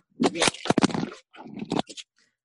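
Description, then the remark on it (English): A phone drops during a call and scrapes against a surface: a run of rough, crunchy bursts and scratches over about two seconds, fairly loud, then a couple of brief clicks before silence. “My phone fell.”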